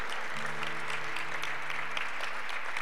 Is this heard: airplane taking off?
no